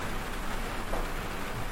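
Steady, dense rain from a thunderstorm falling late at night with a constant hiss and low rumble, no distinct drops or thunderclaps standing out, and no voices.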